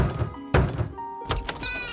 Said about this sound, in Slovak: Z práce ho vytrhne rázne búchanie na dvere.